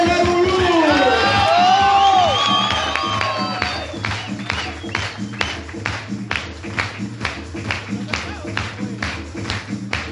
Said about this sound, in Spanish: Así que todos vamos a ponernos de pie para recibir con un fuerte aplauso